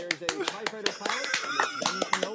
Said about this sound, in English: Oh, applause, everyone.